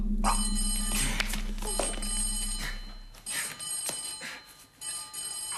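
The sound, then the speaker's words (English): An old-style telephone bell rings loudly in repeated bursts, a bright, rattling metallic trill that starts and stops several times with short gaps between rings. No one speaks. “Answer that, please, Miss Smile.”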